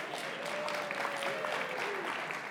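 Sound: audience applauding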